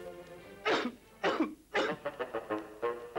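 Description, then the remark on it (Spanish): A person coughs three times in harsh, loud bursts, followed by a quicker string of smaller hacking coughs, clear with no talking. “Evito la tos con pastillas Penetro.”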